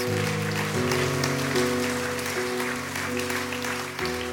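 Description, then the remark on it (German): Steady audience applause, given for those who have made a decision, fills the whole clip, a dense, continuous clatter of clapping over sustained keyboard chords that shift a few times underneath. “Herr, lass uns denen Applaus geben hier vor Ort, auch online, wenn du eine Entscheidung getroffen hast.”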